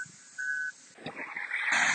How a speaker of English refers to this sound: And those are sprinklers if you hear those in the background.